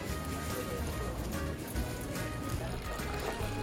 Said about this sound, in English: Because if they have a fountain like this, the water is better than any bottle you can buy.